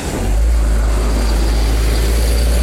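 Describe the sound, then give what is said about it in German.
A bus engine rumbles loudly as the bus passes a zebra crossing without stopping, a deep, steady drone that holds for a few seconds with no speech over it, in cold sea air. “Nicht mal Busse äh, kümmern sich um Zebrastreifen.”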